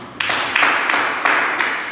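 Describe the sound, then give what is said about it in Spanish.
An audience breaks into applause offered to Jesus Christ, many hands clapping together in a dense, steady wash of sound that stays loud for the whole moment, with no voices rising above it. “Le quisieron regalar un aplauso a Jesucristo.”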